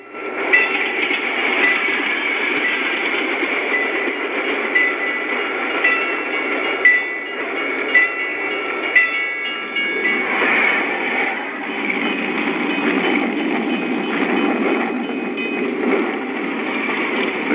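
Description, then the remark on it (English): Train cars roll by through sleepy French towns and countryside in a steady, continuous rumble and rattle, with a thin metallic squeal riding on top and a few sharper clanks recurring every couple of seconds. No voices. “cars pass through the sleepy French towns and countryside. A strange, slow parade of muttering monsters.”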